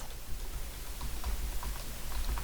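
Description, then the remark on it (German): Soft, irregular clicks of someone typing on a computer keyboard, adding a web link to a set of notes, faint, over a low steady background rumble with no voices. “Ja, also äh, falls ihr mich hier im Hintergrund tippen hört, ich habe gerade den Link für den SharePic-Generator in die Show Notes mit aufgenommen.”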